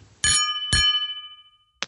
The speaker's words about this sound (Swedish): Eh, ska vi skåla på det kanske? Ja, men det tycker jag. Skål på dig och skål på er där ute också. Skål på alla säger jag.